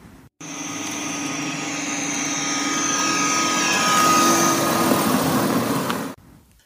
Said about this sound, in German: Nein, das ist kein Störgeräusch. Es handelt sich um ein akustisches Alarmsystem für Elektrofahrzeuge, wie es in den neuen E-Bussen der Stadtwerke eingebaut werden soll.